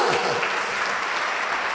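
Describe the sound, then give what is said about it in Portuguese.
An audience applauds in a steady, dense wash of clapping that fills the whole clip at an even, fairly loud level, with a few faint voices mixed in. “Vamos aplaudindo de novo!”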